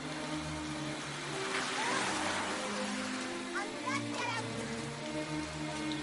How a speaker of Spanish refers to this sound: Un coche pasa a su lado empapándola.